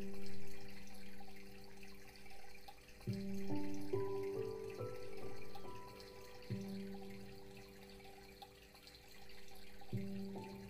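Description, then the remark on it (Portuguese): Water runs steadily in a soft, continuous wash, mixed with gentle sustained musical tones that shift every few seconds. No one speaks. “E então você solta junto com essa água você deixa essa energia divina levar completamente tudo.”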